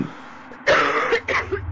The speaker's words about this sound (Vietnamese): Nói đến đây cô ba tiếp tục ho ra máu